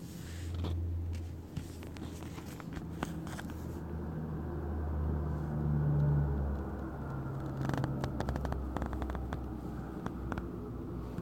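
A low, humming engine drone from an airplane passing overhead, with shifting tones that swell to a peak midway and ease off, plus scattered clicks and rustles; no one speaks.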